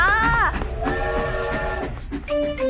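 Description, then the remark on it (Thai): A train whistle sounds in several loud, drawn-out blasts, one bending downward in pitch, over a steady low rumble of a train pulling away. “เอาเอารีบไปรีบไปเดี๋ยวจะขึ้นรถไฟไม่ทัน”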